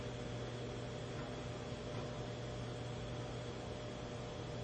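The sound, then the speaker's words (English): A steady, low electric hum from a running electric heater at the back, with a faint fan-like whoosh layered over it, constant and unchanging throughout, fairly quiet, with no voices. “At the back, the electric heater is going, playing its song.”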